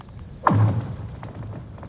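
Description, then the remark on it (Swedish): A single deep boom from lake ice settling underfoot: a sharp crack that sweeps quickly downward into a low, resonant rumble, fading over about a second with faint outdoor quiet around it. “fan vad läskigt det låter när, när det liksom sätter sig.”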